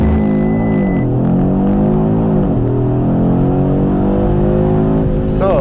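An Audi sports car's engine roars loud, its harmonic whine sweeping upward in pitch as it accelerates hard from a launch-control start held at 4000 rpm in S Performance mode, shifting through gears, with a brief higher burst near the end; the sprint takes 3.8 seconds.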